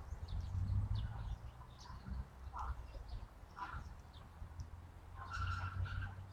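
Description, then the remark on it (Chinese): Plain laughingthrushes foraging by turning over the ground: scattered short, soft chattering calls come in brief bursts over a steady low rumble, with faint scratchy rustling between them. “我说刚才那个声音是他们的，且在这会吃一阵儿，嗯，好。”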